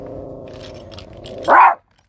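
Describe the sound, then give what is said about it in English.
A female Rottweiler, guarding, growls low and steadily for over a second, then lets out a single sharp, loud bark before going quiet. “Oh, she's guarding. Okay. Good guarding.”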